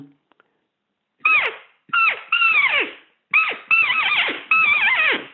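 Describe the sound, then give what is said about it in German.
A rapid series of six high, squealing roe deer chase squeaks and fear cries, loud, each a sharp wavering whine, grouped in quick bursts. They are imitated with a hunting call, with no talking. “Das war jetzt Sprengfieb mit Angstgeschrei.”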